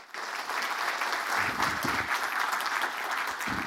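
An audience breaks into a round of applause, dense steady clapping that starts abruptly and holds at an even, loud level throughout, with a few faint voices mixed in.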